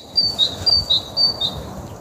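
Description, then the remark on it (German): Birds singing in a quick series of high, bright chirps, about six short notes alternating between two pitches, clear against a soft low background rumble. “Das, das, das singen die Vögel.”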